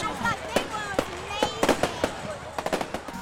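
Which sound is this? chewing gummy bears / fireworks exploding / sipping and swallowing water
fireworks exploding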